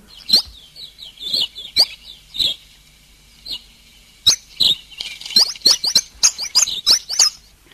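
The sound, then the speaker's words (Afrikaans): A pin-tailed whydah calls with sharp, squeaky high-pitched chips and tinny whistles, loud, coming in irregular bursts that quicken into a rapid chattering run near the end. “Ek kan die goed nie verdeel nie want hulle klink so”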